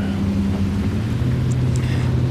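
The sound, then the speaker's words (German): A ridden jet ski's engine drones loudly and steadily on the water, a continuous low mechanical rumble with a few faint higher chirps near the end, no voices. “das, das ein, ein, ein stinkender, lauter Jetski-Fahrer.”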